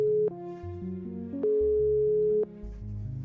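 A telephone ringback tone from an outgoing call made to ask what is happening with a concert: a steady mid-pitched beep lasting about a second, with long pauses between, heard over soft background music with no voices.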